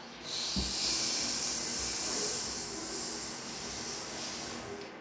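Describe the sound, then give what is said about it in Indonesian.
After a breath in, a voice sounds the letter S, holding a long, steady hissing "sss" sound for about five seconds, bright and airy, with no other talking. “Yuk, coba bunyiin huruf S-nya.”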